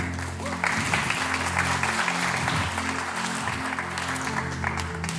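Sustained audience applause for a participant as she goes back to her seat, a dense continuous wash of many hands clapping at steady loudness for several seconds, with a low hum or music tones sounding underneath.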